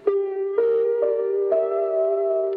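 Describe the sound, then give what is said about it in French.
Lo-fi piano by a musician, recorded on and played back from a magnetic card machine made for recording short phrases: four sustained notes struck one after another, their tone warm, muffled and slightly wavering in pitch, with no talking. “Mais …, c'est le gars qui a fait la vidéo, préfère enregistrer son piano avec.”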